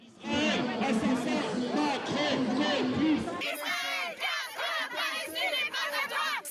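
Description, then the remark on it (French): A large crowd at a pro-Palestinian demonstration chants traditional pro-Palestinian slogans in loud unison, many voices shouting together in rhythmic bursts, with a sudden cut partway through to a second stretch of chanting. “La foule réunie a repris les traditionnels slogans pro-palestiniens”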